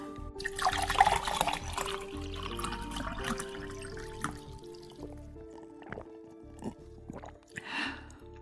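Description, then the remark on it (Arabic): Someone drinks water, with a splashy pour or slurp at first, then several soft, separate gulps and swallows. A steady, shifting tonal hum plays quietly underneath throughout, and no one speaks. “شوي بس أشرب مي”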